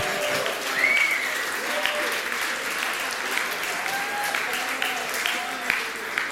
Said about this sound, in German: Now, einige von euch klatschen in die Hände.